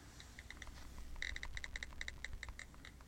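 Rapid computer keyboard typing during an internet search, a steady run of crisp clicks that speeds into a dense burst midway, fairly quiet over a low background hum, with no voices.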